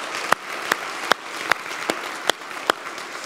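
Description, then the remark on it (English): An audience at Trinity Church applauds to thank the band and choir in a steady, dense wash of clapping, with a few sharper claps standing out at a regular beat; no one speaks over it. “Can we thank them? Let's do that.”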